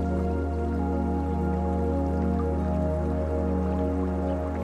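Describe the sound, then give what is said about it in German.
Water of a clear, shallow river, only a few centimeters deep, bubbles and gurgles steadily over small stones in soft sunlight, a continuous trickle with soft drips, layered over a constant low humming tone, with no one speaking. “Das Wasser sprudelt und gluckert über kleine Steine dahin.”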